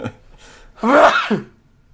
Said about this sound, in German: Sekunde kurz, ich muss mal kurz niesen. Ist kein Corona.